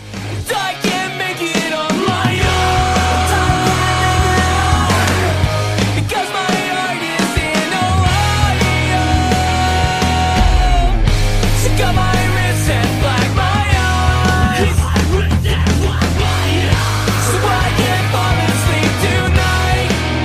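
A loud emo rock song plays continuously for the whole stretch, with a dense full-band sound of driving guitars, bass and drums and a brief dip before the music surges again. No one talks over it.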